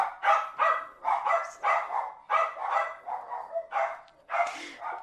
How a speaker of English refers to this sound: And we have dogs barking in the background.